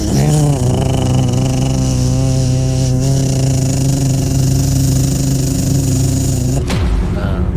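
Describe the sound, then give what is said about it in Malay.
A generator engine drones steadily and loudly, a constant low mechanical hum with no talking, before cutting off abruptly near the end. “itu bunyi generator kan.”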